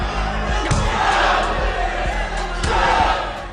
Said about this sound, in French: L'ambiance des combats est elle aussi très particulière, puisqu'on peut percevoir l'ensemble des cris des combattants, mais aussi une ambiance feutrée et des cris sourds permettant de mieux nous imprégner de la perception d'un seul personnage.